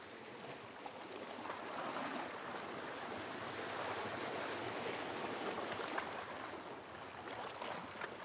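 Soft, steady ocean surf washes continuously onto a beach, a broad hiss of water rising and easing gently with no voices present.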